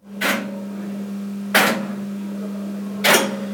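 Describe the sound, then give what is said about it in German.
Railway signalling relays in a relay room clack three times at a slow, steady interval as a train occupies track clearance sections, each a sharp mechanical snap standing out over a constant low electrical hum, with no one speaking. “Ähm, das erste Geräusch, das heißt, Zug befährt Freimeldeabschnitte.”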